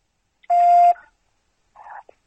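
A conference call join chime: a steady electronic beep lasting about half a second, followed after a pause by a shorter, softer tonal blip, with no talking.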